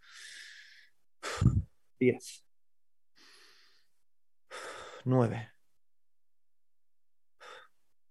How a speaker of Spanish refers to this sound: representa una respiración completa. Inhalando y exhalando.